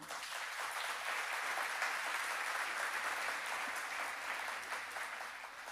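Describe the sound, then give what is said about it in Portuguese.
An audience applauds the Lord steadily for several seconds, a dense, even wash of clapping hands that holds at a constant level without voices over it. “Pode aplaudir o Senhor.”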